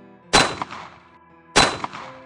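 Two sharp, loud gunshots about a second apart, each with a quick echoing tail and a smaller after-thump, with no voices around them.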